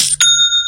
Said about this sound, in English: You should know what that sound means. That's the sound of another sale on Shopify and the moment another business dream becomes a reality.